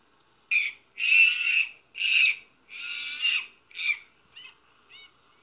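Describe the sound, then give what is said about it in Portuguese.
A monkey calling out in a run of loud, harsh, chattering cries, about seven in a row, the last few shorter and softer, with no voices around them. “Isso mesmo, é o macaco.”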